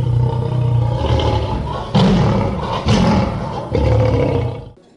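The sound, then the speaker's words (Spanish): A lion that escaped from its enclosure at a wedding roars in a series of loud, deep, rumbling bursts, with three strong surges in under five seconds before the sound drops away abruptly. “Alguien de la seguridad se olvidó de cerrar las leoneras, de tal modo que acaso cebado por el penetrante olor asado, uno de los leones se escapó y se abalanzó directamente sobre el novio, con las consecuencias previsibles.”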